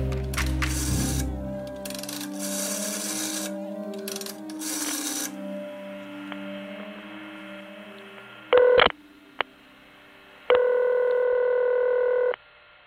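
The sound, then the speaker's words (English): A telephone being dialed as Connolly rings Brenda Little: after some clattering handling noise and a low hum, a short push-button tone beeps, then a longer steady dial tone sounds clearly, with no one talking. “When MacArthur arrived at his front door, Connolly immediately rang Brenda Little and put MacArthur on the phone.”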